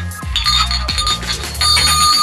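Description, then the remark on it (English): A hand bell is rung vigorously, its bright metallic clangs repeating rapidly and loudly, with overlapping ringing tones sustaining throughout and no one speaking. “Hand me the bell, Jocelyn.”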